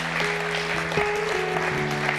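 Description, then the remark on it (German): An audience applauds with a dense, steady wash of clapping for those who have just decided to follow Jesus, while a sustained musical tone holds underneath, shifting pitch slightly partway through. “Können wir einmal einen Applaus für all diejenigen, die diese Entscheidung getroffen haben?”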